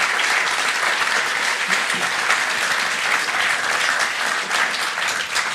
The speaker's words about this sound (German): Können wir auch mal Applaus machen. Dankeschön.